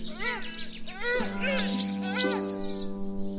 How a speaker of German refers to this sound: Können wir vielleicht darunter so Vogelgeräusche und so ein bisschen so schön